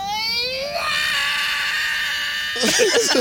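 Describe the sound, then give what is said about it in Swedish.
A voice imitates the long, wailing roar of a child sedated after a dentist visit, sliding up to a high, strained held note for about two seconds, then breaking into a short burst of wavering vocal sounds. “han, han gör ju ett jävla så här, vrål och sen så bara däckar han typ direkt efter det.”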